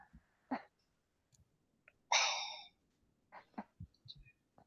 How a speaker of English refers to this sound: Your, your gasp did so much as made me crack the hell up.